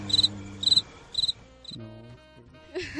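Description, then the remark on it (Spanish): A cricket chirps in three quick, evenly spaced pulsed bursts, bright, followed by a few soft tonal sounds and a brief rustle at the end. “por favor, el grillo.”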